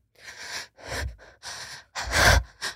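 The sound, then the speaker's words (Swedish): A voice imitates heavy panting, with five or six loud, breathy bursts in quick uneven rhythm and no words between them. “Men flåsa dem liksom? Men, bara så här.”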